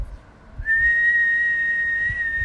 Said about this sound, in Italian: Senti che c'è troppa aria che passa. Mm. Non fischiare. C'è troppo... È troppo vuoto.